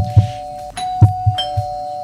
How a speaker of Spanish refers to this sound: Así que Vamos a tocar el timbre de esta mañana allá en Anefar. Están las oficinas de Anefar ahí al pie del cañón. Toquemos el timbre. A ver, ya, toca el timbre, toca el timbre.